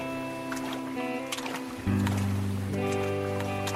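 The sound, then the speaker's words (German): Several splashy, sloshing steps of three people wading through shallow water to the small island of Lütjehörn at an uneven walking pace, set against a steady droning musical bed that swells louder partway through. “Mit der Leine, die immer noch neben dem Bullauge hing, kletterten die drei aus dem Fenster, warteten durchs Wasser und kamen nach nur wenigen Schritten auf der kleinen Insel Lütjehörn an.”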